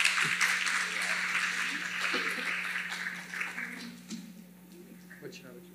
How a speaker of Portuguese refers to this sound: Uma salva de palmas para os nossos convidados.